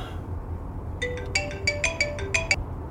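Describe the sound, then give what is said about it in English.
A phone ringtone plays a quick, bright melodic pattern of several tones, clear over a low background hum with no talking, before the call is answered. “you finally answered.”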